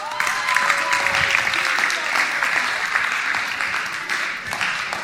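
Sustained audience applause, a dense steady patter of many hands clapping at even loudness for about five seconds, with a few whistles or cheers mixed in early on.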